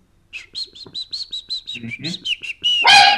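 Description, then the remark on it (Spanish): A startled pet dog yelps in a quick run of high, squeaky cries, then lets out one loud, harsh bark at the end, with no talking. “Ay, güey, asustaste a mi perro.”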